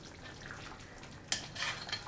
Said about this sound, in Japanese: 今は豚汁作ってます